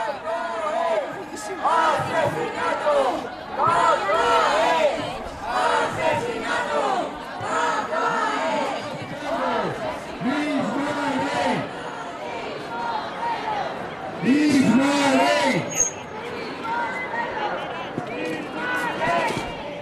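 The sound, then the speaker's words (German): A large demonstration march on the Día del Galgo, 1 February, heading toward the parliament, streams past, filmed from atop a bench: many voices shouting and chanting 'mis perros, mis ley' together in rising and falling bursts, a loud, continuous din with a few sharper whistles or cries breaking through. “An einer Stelle bin ich dann mal auf eine Bank gestiegen und habe den kompletten Zug an mir vorbeiziehen lassen, um mal ein Gefühl zu bekommen, wie viele das sind und habe das gefilmt, knapp acht Minuten lang.”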